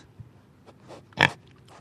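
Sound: pig grunting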